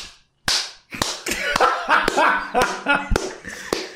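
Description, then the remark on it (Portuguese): Vigorous hand clapping for Júnior Lima, about ten loud, sharp claps in an uneven rhythm, with voices talking and exclaiming underneath between the claps. “bate palma pra Júnior Lima aí. Você quer que tipo de palmas? Ah, palma vigorosa, palma da riqueza.”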